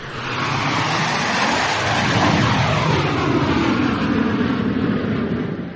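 An airplane flying overhead, a steady, full roar of jet noise holding at constant loudness for about six seconds, with faint sweeping tones shifting in pitch as it passes. No voices.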